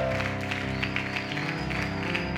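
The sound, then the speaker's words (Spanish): A church audience in Nicaragua applauds for the Lord over sustained keyboard chords, the clapping a steady, moderately loud crackle with a few sharper claps standing out through the music. “Dese el aplauso al Señor y reciba eso.”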